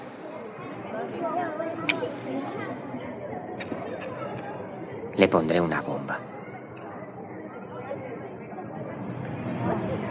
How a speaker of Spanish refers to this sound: Pero con el ruido de los niños no nos oirán.